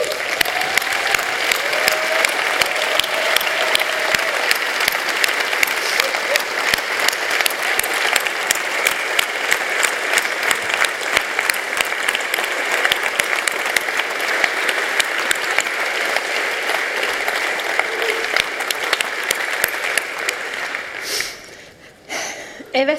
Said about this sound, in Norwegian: Jeg syns at alle vi som ikke har hovedansvar for noe, det skal reise oss og klappe, for, klappe for dem. Kan vi gjøre det?